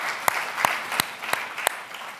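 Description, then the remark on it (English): A church audience gives a clap offering, clapping steadily, with a wash of crowd applause and sharp, evenly spaced loud claps cutting through about three times a second. No one speaks. “I want to come on, give them a clap offering wherever they are.”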